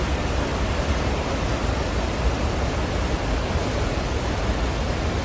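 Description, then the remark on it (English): A steady, dense roar of a raging waterfall and rushing river water, with a constant hiss filling the whole clip and no letup or talking. “The falls were really raging.”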